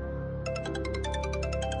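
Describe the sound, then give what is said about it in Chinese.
A mobile phone rings with an incoming call, its ringtone playing a quick, bright series of repeating electronic tones in a steady rhythm, rising in over a low, continuous hum. “这个时候，手机响了，梁金华的电话。”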